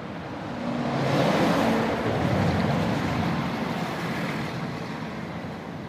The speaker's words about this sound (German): Und da fahre ich jetzt entlang und weiter ins frühere Fürstbistum Freising, die rechte Isarseite hinunter, an der der Fluss rauscht.